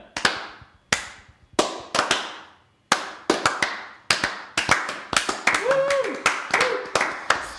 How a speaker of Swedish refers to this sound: Skulle vi ha slow-klappat på den? Att det, först hade det varit helt tyst, sen hade någon insett genialiteten.